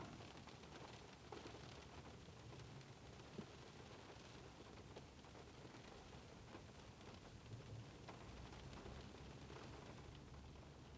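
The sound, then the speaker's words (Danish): Steady, heavy rain pours down outside in a continuous dense hiss, heard while sitting in a car, with a low rumble underneath and no voices throughout. “på en måde har jeg ikke, har jeg ikke lyst til at vade rundt i regnen.”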